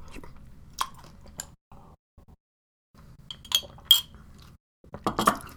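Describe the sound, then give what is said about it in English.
Crunchy chewing of cereal with a few bright clinks of a spoon against a mug, one sharp clink near the middle and a burst of crunching and clinking at the end. No one speaks. “Got to finish off this uh, mug now.”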